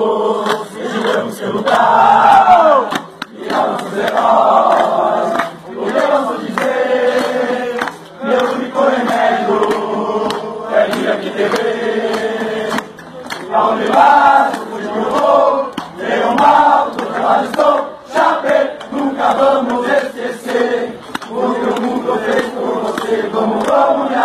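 A large crowd of football fans sings a loud, sustained chant in unison, the melody rising and falling in repeated phrases with brief dips between lines, with no one speaking over it.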